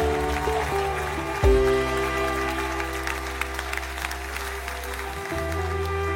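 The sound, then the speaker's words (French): An audience applauds the Lord steadily for several seconds, a dense wash of clapping over a sustained low organ or keyboard chord that shifts partway through. “Est-ce qu'on peut applaudir le Seigneur encore une fois pour qui il est?”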